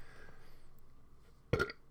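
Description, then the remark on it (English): A single short burp erupts at a microphone after a quiet stretch of low room noise, loud and abrupt with a brief throaty rasp before cutting off. “what is it about doing a podcast that as soon as I crack the mic, I have to clear my throat, I have to burp”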